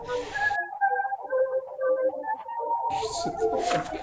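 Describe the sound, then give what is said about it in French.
Warbling, watery digital tones with metallic, chirping artifacts, like a song re-encoded as MP3 30,000 times until only garbled whistles and bursts of hissy noise from the compression algorithm remain. “Et ce qui, ce qui arrive, évidemment, à un moment donné, il n'y a que l'algorithme qu'on entend.”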